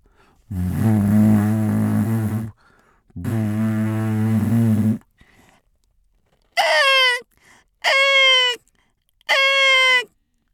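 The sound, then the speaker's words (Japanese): A voice imitates a ship's horn with two long, low droning blasts, then mimics black-tailed gulls with three short, high, wavering cries, each separated by brief pauses. “この後どうですかねあの船の汽笛音と海猫”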